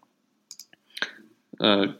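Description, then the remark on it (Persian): A few short, sharp mouse clicks sound in quick succession as Launchpad is clicked to open an application such as Contacts, followed by a brief burst of a person speaking. “حالا ما فرض میکنیم که الان لانچ پد رو کلیک میکنیم و از اینجا میایم مثلا کانتکت رو باز میکنیم”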